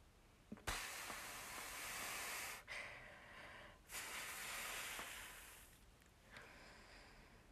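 Slow, deliberate breathing during a breathing exercise: long, airy inhales and exhales follow one another in a steady rhythm, each breath stretching over a couple of seconds, with no talking.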